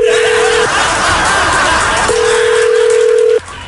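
Telephone line tones as a call is being placed: two long, steady mid-pitched beeps separated by a pause of about a second and a half, sounding over a constant background hiss.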